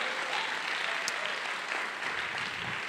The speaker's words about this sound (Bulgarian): Ако ръкопляскаш точно сега, ръкопляскай като човек, който е благодарен